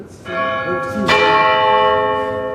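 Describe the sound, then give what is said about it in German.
A large church bell, the second-largest church bell in Germany, strikes twice at 17:30 directly overhead, heard from inside its bell tower, each loud clang blooming into a rich, shimmering hum that rings on and fills the space, with faint voices murmuring underneath. “Dann läutet es plötzlich über uns. Es schlägt 17.30 Uhr und wir mittendrin.”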